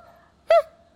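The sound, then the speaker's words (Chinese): A person imitates a dreaming dog's whimper with one short, high, nasal whine that rises briefly and then trails off into a faint, steady hum. No other voices are heard. “但狗狗在做梦，然后做，你知道狗狗做梦，狗狗在快速动眼期的时候，对对对，确实是会就是手脚动啊，然后有时候眼睛会往上掉啊，然后对对，还有时候。”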